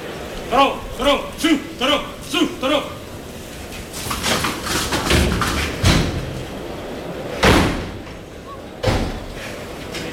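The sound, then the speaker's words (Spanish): A heavy bullpen gate (puerta de toriles) bangs open with a loud, sharp slam as the sixth and last bull, a Miura, enters the ring at the 2021 Feria de San Miguel, then a second thud a moment later. Both come after a run of short repeated tonal bursts over a busy, noisy background. “Salta al ruedo el sexto último toro de la Feria de San Miguel 2021.”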